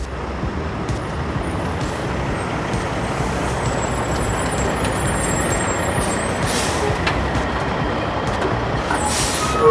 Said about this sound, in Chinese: 平板货车卯足劲，货物绑得牢又紧，足足载了五十吨。他翻山越岭，一路赶来，快又稳，载着满车的补给。